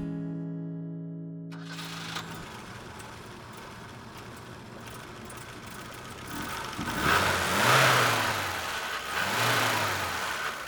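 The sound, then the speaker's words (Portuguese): A homemade car engine being tested starts with a brief tonal hum, then roars into a rough, noisy idle before revving up loudly in two rising surges near the end, with no voices. “Que barulho horrível é esse? Estou testando a minha máquina.”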